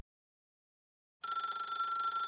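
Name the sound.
telephone ringing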